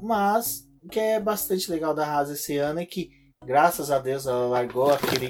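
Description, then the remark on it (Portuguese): A black cat that was sleeping on a table turns over and falls off, landing on the floor with a brief, dull thump, partly buried under a man talking steadily. “Esse som que vocês ouviram agora era o meu gato que tava dormindo aqui em cima da mesa da Débora.”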